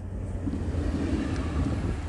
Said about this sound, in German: So, jetzt fährt noch kurz ein Zug vorbei.